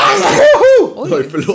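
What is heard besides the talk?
sneeze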